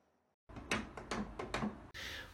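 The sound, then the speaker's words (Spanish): A few sharp, hollow taps on the backrest of a chair, struck in a loose, steady rhythm, followed by a brief burst of rustling noise at the end. “Si percutes una parte de ella, por ejemplo el respaldo, sale otro sonido, como este.”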